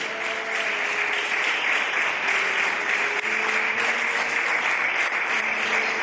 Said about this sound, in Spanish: Aplaudí fuerte en esta noche.